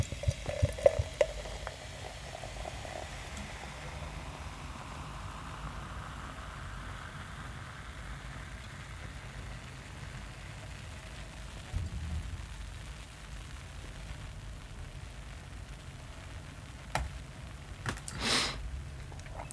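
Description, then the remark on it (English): Duvel, a Belgian golden strong ale, fizzes softly in a glass, a faint, steady crackling hiss of bubbles, with a few small clinks at the start and a brief louder rustle near the end. “I'm sure you can hear the effervescence whispering away in the glass there.”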